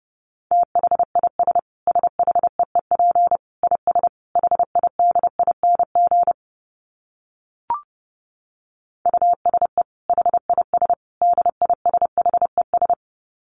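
Morse code at 30 wpm: a steady mid-pitched beep keyed into rapid short and long pulses, pausing for a few seconds around a single soft click, then resuming. No voices.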